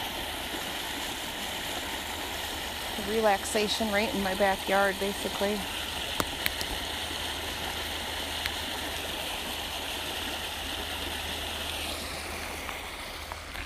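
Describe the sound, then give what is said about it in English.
A stream flows steadily along a path, its continuous rushing and babbling filling the whole recording, fairly loud. A man speaks briefly over the water near the start. “Another part of the water along this path.”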